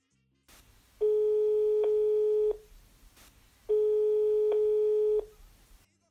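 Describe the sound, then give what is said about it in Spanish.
Two long, steady electronic telephone tones ring out with a pause between them, a clear call-connecting signal, fairly loud over a faint line hiss, with no voices. “Logramos conectarnos vía telefónica con Deifan Rivera”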